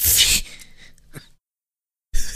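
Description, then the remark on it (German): A sudden, loud hissing burst of spray from an Airwick automatic air freshener, lasting under half a second before fading, followed by quiet and then a brief rustle. “Krass, hab ich mich gerade vor meinem äh, Airwick erschrocken, Alter.”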